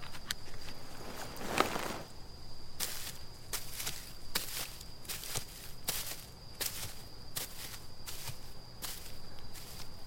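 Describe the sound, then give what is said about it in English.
Steady footsteps walking outdoors, crunchy, evenly spaced steps repeating about once a second, with a constant high insect-like hum running underneath and no voices. “So I decided to start walking now.”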